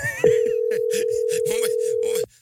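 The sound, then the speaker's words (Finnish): A loud, steady telephone dial tone, heard after a phone line suddenly cut off during a call, holds one unbroken pitch for about two seconds, then cuts off abruptly while someone keeps talking underneath it. “ja puhelinlinjahan katkesi sitten välittömästi.”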